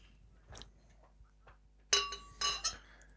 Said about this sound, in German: eine Flasche Paulaner Hefe Weißbier Alkoholfrau und eine Flasche Franziskaner aus dem Kühlschrank geholt und die werde ich jetzt auch mal live und in Farbe sozusagen einschenken.